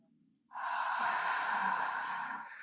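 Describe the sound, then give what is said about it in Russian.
A long, breathy exhale through a slightly open mouth during a guided breathing exercise, following an inhale through the nose and a breath hold. It starts after a brief quiet moment and streams steadily for about two seconds, fairly loud, with no talking. “И выдох через приоткрытый рот.”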